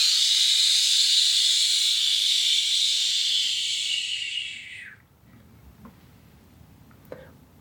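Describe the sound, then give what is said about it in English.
A voice makes a long, steady breathy whoosh imitating wind in the trees, held for about five seconds before cutting off, followed by quiet room sound with a couple of faint clicks. “Listen, listen, how I whisper. Mm-hmm. Mm-hmm. In the trees, listen to me.”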